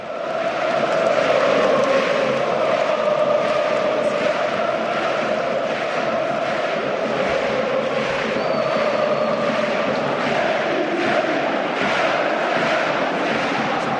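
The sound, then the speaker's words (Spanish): A huge, record-attendance crowd at San Mamés stadium roars and cheers continuously after Athletic beat Atlético de Madrid 3-0, with players celebrating with the stands; a dense, loud wall of celebrating voices with rhythmic chanting swells, sustained without pause for the whole stretch. “Es el sonido de San Mamés. Están los jugadores, creo, celebrándolo todavía con la grada.”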